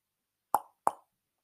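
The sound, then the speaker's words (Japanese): Two crisp knocks by a mother on the door of her son's small wood-floored Western-style room, about a third of a second apart, fairly loud, each with a short hollow ring before silence. “友弘の母が部屋のドアをノックした。”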